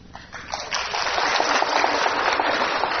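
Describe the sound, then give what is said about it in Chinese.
An audience claps together, a dense crackle of many hands that starts lighter and quickly fills out into steady, even applause lasting a few seconds, with no voices over it. “嗯，你们没有聊过，不用拍手，嗯。”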